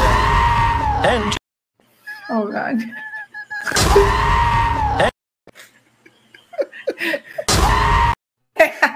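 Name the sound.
screaming goats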